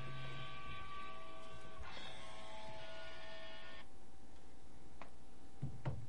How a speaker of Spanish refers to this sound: son las cosas del directo que te suena el móvil y lo tienes que silenciar.